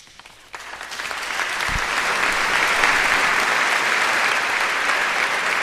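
A large audience in a cathedral breaks into sustained applause that swells within the first second or two and continues steadily, dense and reverberant, celebrating the appointment of Monsignor Gerardo Villalonga Ellín as bishop.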